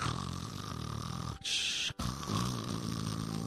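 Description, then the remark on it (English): A voice imitates a rough, snoring growl, rumbling low and loud for over a second, breaking for a brief hissing breath, then growling again just as forcefully. “they're like, oh my God, what's that? Did you hear that growling?”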